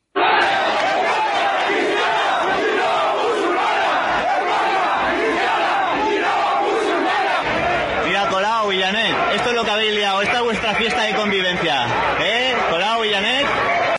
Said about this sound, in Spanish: cada día a las nueve de la noche, cacerola en mano, y durante al menos veinte minutos se dedican a protestar por la apertura de una mezquita en el local que ocupa el número 28. Aparte de las cacerolas, también se pueden escuchar cosas como estas.